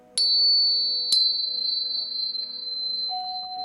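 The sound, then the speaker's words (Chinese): A tuning fork is struck twice during a guided prayer, to help listeners focus, each sharp tap followed by a clear, high, pure ringing tone that sustains steadily and fades only slightly. A lower hum joins near the end. “我要敲音叉了。”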